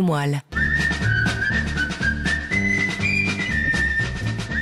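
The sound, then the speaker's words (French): A jaunty film theme melody is whistled over a bouncy band accompaniment, the bright whistled tune sitting clearly on top of brass and drums, loud and upfront, after a brief opening note and pause. “Voilà qui va sûrement vous rappeler des souvenirs, les fameux gendarmes de Saint-Tropez”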